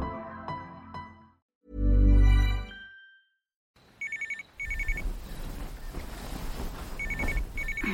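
A telephone rings in short double bursts, twice, over a low rumbling background, after a few seconds of unrelated musical sounds and a deep thud.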